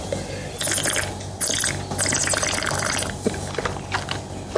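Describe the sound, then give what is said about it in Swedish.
Someone slurps a dark-fruited, oak-aged wine while tasting it, in several hissing, gurgling pulls of air through the liquid, a few seconds of bubbly airy noise with no talking. “Jag ska smarra lite.”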